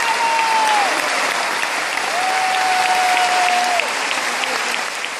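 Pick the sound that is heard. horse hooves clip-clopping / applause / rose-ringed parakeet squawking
applause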